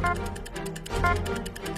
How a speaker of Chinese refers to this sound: 答题倒计时开始